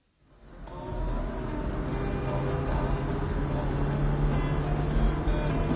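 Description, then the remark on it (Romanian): A car engine hums steadily after fading in, a continuous low rumble with faint tonal whine, as the car drives along a road on the way to Brussels and is pulled over by the police. No one speaks. “Pe drum, mașina lui Andreea se oprită de poliție.”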